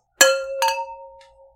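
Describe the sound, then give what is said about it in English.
Two quick clinks of glasses of Sauvignon Blanc wine touching in a toast, bright, followed by a clear ringing tone that lingers and slowly fades, with no one speaking. “All right, well, cheers.”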